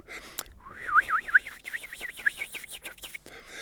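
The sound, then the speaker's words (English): A single whistle wavers rapidly and widely up and down in pitch, an exaggerated vibrato held for about two and a half seconds, with no talking over it. “I can make a very simple, pure tone and then make the vibrato extreme, so not at the rates of musical vibrato, but much greater and much greater depth. So the limit of my own whistle would be somewhere”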